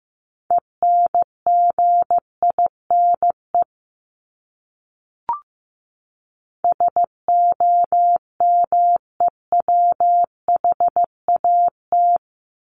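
Morse code at 15 words per minute, sending words from a list of the 1251st to 1500th most common words: a single steady mid-pitched tone keyed into short dots and longer dashes, sent in two bursts separated by a pause and a brief click.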